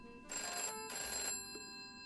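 A telephone rings twice in quick succession on Christmas Eve, each bright, metallic burst lasting about half a second with a short gap between, clear with no voices.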